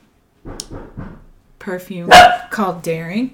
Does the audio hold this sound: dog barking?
yes